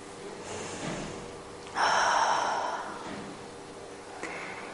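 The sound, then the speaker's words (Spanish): A soft intake of breath, then one strong, rushing exhalation pushed out during a guided relaxation breathing exercise, followed by quiet. No one speaks. “Respiráis despacito y exhaláis con fuerza.”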